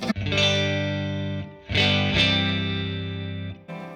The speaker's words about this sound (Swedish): Och så här låter det ur fas mellan stärkarna.